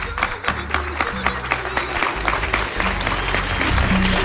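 The audience of a live radio broadcast from the Archaeological Museum in Baza, Granada, Andalusia, bursts into sustained applause for the programme's team, a dense, steady wash of clapping that holds at a strong level for the full few seconds, with a faint low hum running beneath it.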